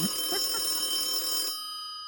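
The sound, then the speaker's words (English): A telephone line rings once as a dialed call goes through, a steady electronic burst lasting about a second and a half, then cuts off, leaving a faint lingering hum, with soft murmuring voices in the background. “Oh, it's ringing.”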